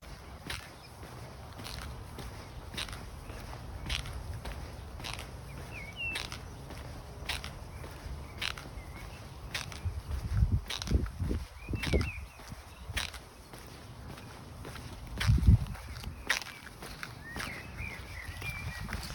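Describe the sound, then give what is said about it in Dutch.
Steady, rhythmic creaking from running shoes, one short squeak with each step at a relaxed walking pace during a 200-meter rest in an interval run, over low outdoor rumble with faint birdsong in the background. “Als je denkt eh, dat het mijn krakende benen zijn omdat ik oud ben, dat is het zeker niet. Dat zijn de schoenen.”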